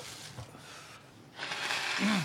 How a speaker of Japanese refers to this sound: 鼻かんでもいいですか